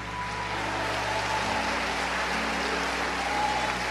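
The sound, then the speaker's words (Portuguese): A large crowd applauds the Lord, a steady, dense wash of clapping that stays at an even level throughout, with a faint low hum underneath. “Se você se sente fortalecido por Deus agora, faça um barulho para Ele, aplauda o Senhor, grite aleluia.”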